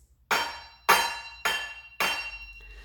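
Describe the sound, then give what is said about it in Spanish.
Four loud metallic clanks land in a steady, evenly spaced rhythm, each a bright ringing strike that decays quickly, made by a pot hopping and banging on its single brass foot. “El caso seguía dando saltos con su único pie de latón, pero a los ruidos metálicos se añadieron rebuznos de burro y gemidos humanos de hambre que salían de sus profundidades.”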